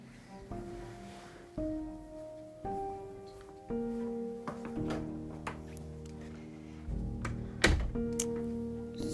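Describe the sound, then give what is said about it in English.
Several small clicks and taps, then a door shuts with a solid thud near the end, over a steady tonal hum in the background. No one speaks. “I was just closing the door.”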